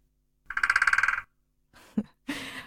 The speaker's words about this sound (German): Der Specht zum Beispiel, der klopft an seine Höhle.